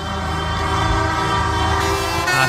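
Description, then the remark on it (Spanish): Loud, sustained tractor horns blare together in a continuous chorus at a farmers' protest in Brussels, as rows of tractors drive through the district, overlapping blasts filling the whole stretch with a dense, droning wall of honking out in the street. “Sí, suena la capital comunitaria donde desde primera hora filas de tractores están circulando por el barrio”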